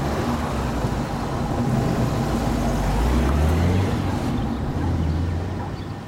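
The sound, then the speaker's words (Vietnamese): A car being driven over to the gate on the other side hums steadily with a low, continuous engine rumble and road noise, its pitch rising slightly midway as it moves along; no one speaks. “Anh ơi, anh lái hộ em sang cái cổng bên kia xem như nào anh nhé.”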